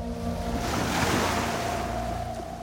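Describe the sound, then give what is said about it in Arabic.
Waves of the Mediterranean Sea off Tunisia rush and swell, a broad surging wash that peaks and slowly recedes, with a steady low mechanical hum underneath like a boat engine and some wind. “هنا بحر تونس كابوس بلا نهاية في الأفق هنا تغرق الأحلام ويحمل الموج جثث أصحابها”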